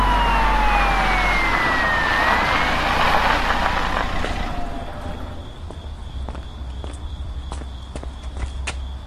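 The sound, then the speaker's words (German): A police car siren wails in gliding, sweeping tones over a heavy low engine rumble, then cuts off after about four seconds, leaving a thin steady whine and scattered footstep-like taps. “das sind die Bullen. Fahren Sie also sofort rechts ran.”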